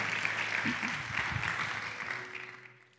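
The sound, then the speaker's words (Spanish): An audience applauds the Lord together, a dense, steady wash of clapping from many hands that carries on for a few seconds before gradually fading out, with a few faint voices mixed underneath. “Vamos a dar un aplauso al Señor si usted lo cree.”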